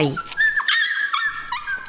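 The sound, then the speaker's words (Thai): A dog, one of those living on near the Chernobyl nuclear power plant in Ukraine, gives a short bark at the start, then breaks into a high, wavering whimper that rises and falls for a couple of seconds, fairly loud with no one talking. “แรงระเบิดทำให้ประชาชนประมาณ 200,000คนอพยพออกนอกพื้นที่ โดยส่วนใหญ่ไม่ได้นำสุนัขออกไปด้วย ทำให้พวกมันต้องใช้ชีวิตอยู่ใกล้กับโรงไฟฟ้าต่อไป”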